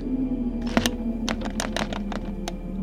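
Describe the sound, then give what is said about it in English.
Someone rattles the handle of a locked door, a series of quick, irregular metallic clicks and jiggles over a low steady hum, with no voices. “Try the door.”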